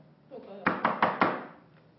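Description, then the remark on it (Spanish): Four quick, evenly spaced knocks on a doctor's office door, sharp and fairly loud, with a faint murmur of background noise before and after. “Por ejemplo, la señora, señora, hay un letrero que dice doctor atendiendo, no toque la puerta.”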